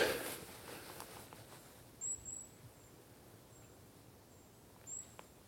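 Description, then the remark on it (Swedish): A few thin, high-pitched bird calls sound faintly, spaced irregularly over a quiet, hushed outdoor background with no one talking. It is dusk on a fairly warm November day in a forest on Ornö, an island in the Swedish archipelago. “Och fåglarna hörs lite grann här nu innan det blir totalt mörkt en ganska nice tid på dygnet.”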